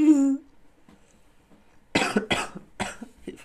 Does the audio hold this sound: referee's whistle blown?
no